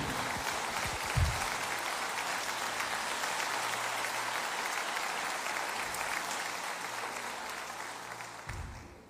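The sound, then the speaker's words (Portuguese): An audience at a church service applauds the Lord steadily, a dense wash of clapping hands that stays even and sustained for several seconds before tapering slightly at the end, with no one speaking. “Aplauda o Senhor, glorifique o nome do Senhor.”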